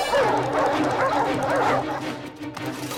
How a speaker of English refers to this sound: When Russell reveals that the giant bird with them is a snipe, the music becomes dark, then turns into chase music as Carl, Russell, and Kevin the Snipe run away, pursued by Muntz's pack of dogs.